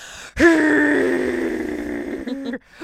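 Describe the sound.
A voice imitates a road roller's rumble, a sound a small baby fell asleep to, with one long, steady, droning hum held for about two seconds, fairly loud, then stops abruptly.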